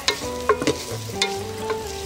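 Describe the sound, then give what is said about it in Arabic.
A utensil stirs garlic and finely chopped onions softening in a frying pan, with several quick scraping strokes over a steady, soft sizzle. No one speaks. “نزلنا البصل المفروم ناعم خليه يتدبل منيح بعدين بنزيد عليه شويه تومه طبعا بنزل بتنزل بالاخر بعد ما يستوي البصل يعني التومه ما بتاخذ كثير حراره حنغطي عليها بعد شوي عشان من ال العبقه تبعت البصل تستوي بدي اياها مع برضه البخار تبعها بنحركها”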